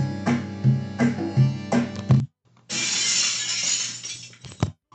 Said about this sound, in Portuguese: não percebeu que a vitrine ainda estava fechada e se arrebentou contra o vidro.